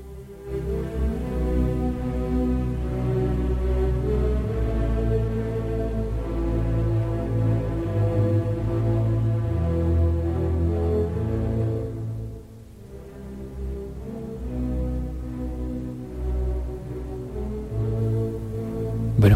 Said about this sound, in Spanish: tenemos que decirles que esto que estamos escuchando es el tercer movimiento de la séptima sinfonía de Beethoven, que también está incluido en esta experiencia, ¿eh? que suena así de bien.